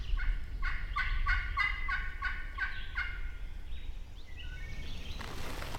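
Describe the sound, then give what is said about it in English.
A wild turkey, answering hunters' calls in open woods around 10:30 to 11 o'clock in the morning, gobbles in a rapid rattling burst of repeated notes, followed by a few softer calls over a steady low outdoor rumble, with no talking. “He's interested, and he's gobbling up in the day.”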